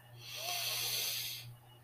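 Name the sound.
long deep breath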